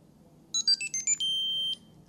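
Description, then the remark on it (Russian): An electronic device connected to a charger, with its left button 2 held, plays a quick series of high-pitched beeps at shifting pitches, ending in one longer steady tone, signalling its battery is still charging. A low hum sits underneath, and no one speaks. “и слышать, опять же, этот сигнал, это значит, что прибор еще заряжается.”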